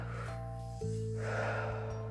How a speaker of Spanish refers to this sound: Puedo dejar ir, puedo dejarte ir y te voy a permitir que te vayas en este momento con cada nueva respiración. Inhalo y exhalo lentamente.